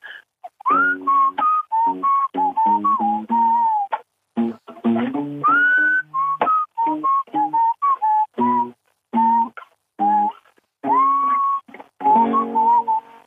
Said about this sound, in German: Entschuldigung, ist das jetzt gepfiffen oder ist das Blockflöte? Das ist gepfiffen. Das ist keine, kein Hokuspokus. Das ist nur ein bisschen Heilraum auf einem Pfeifer. Und der klingt dann eben mit Gitarre.